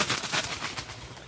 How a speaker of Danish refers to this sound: Og fugl. Der var en fugl.